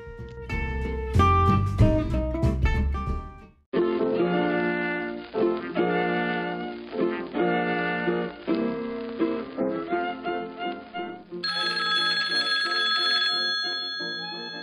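A melodic electronic telephone ringtone chimes in a steady repeating pattern, loud, after a brief burst of bright tones, then shifts to a higher, thinner melody near the end. No voices.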